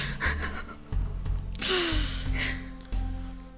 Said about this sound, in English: gasps, I'm an animal.